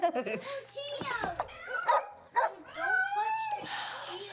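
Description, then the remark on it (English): Two dogs at a house bark and yip excitedly, a rapid string of high, sharp yelps and whiny cries overlapping one another, fairly loud throughout. “my house is so noisy. I check my dogs either. I, I need to check them because it's going to get loose.”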